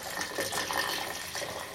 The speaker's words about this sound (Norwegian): ja nå skal helles, nå helles vann oppi uh, eh, Urinvæsken. Urinvæsken jo. Oppi et lite, lite hull.